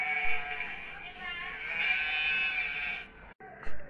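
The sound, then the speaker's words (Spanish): Sheep and goats bleat in a goat and sheep pen on a farm, a long, wavering cry lasting about three seconds that cuts off abruptly, followed by a brief gap and a short final bleat. “Continuaron con su recorrido, pasando por el corral de las cabras y de las ovejas,”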